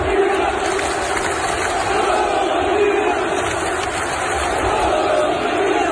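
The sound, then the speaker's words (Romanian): A big stadium crowd of many nations, including French and Swiss fans, chants "România" together, a loud, steady wall of massed voices with a rhythmic, sung quality that holds without a break for about six seconds. “Toate națiile au cântat România.”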